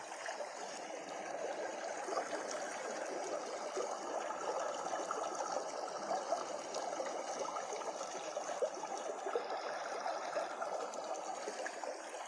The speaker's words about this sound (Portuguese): Você continua caminhando no córrego?